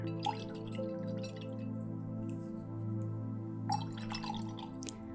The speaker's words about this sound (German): Wir beginnen damit, dass wir unseren Pinsel erstmal ins Wasserglas tauchen und ein paar Mal schwenken, damit wir wieder richtig viel Wasser aufnehmen.